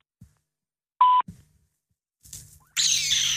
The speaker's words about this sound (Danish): Velkommen til telefonsvaren. Oh. Venligst indtal en besked efter biptonen.